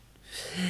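A single short, breathy sneeze: a rush of hissing air that swells quickly and stays fairly loud to the end, with no talking.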